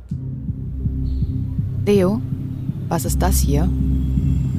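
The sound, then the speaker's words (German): A mobile phone vibrates with a steady, low buzzing hum in repeated short pulses throughout, while a couple of voices speak briefly over it. “Das ist ein Handy.”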